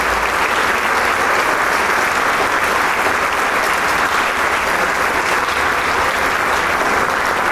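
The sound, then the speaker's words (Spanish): Loud, sustained applause from a large concert audience at the end of a concert, as conductor Maestro Chávez leaves the stage and the musicians applaud each other: a dense continuous roar of clapping that stays steady and unbroken for the whole stretch, with no voices standing out. “Los músicos se aplauden entre sí, se felicitan, pero el público no deja de aplaudir.”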